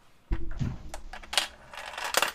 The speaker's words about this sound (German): drei Euro, weil wir haben es viel zu oft gesagt, in unsere, in unsere Kasse werfe. Hören Sie es sich an.